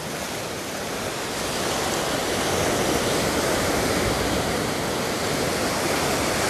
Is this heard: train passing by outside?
no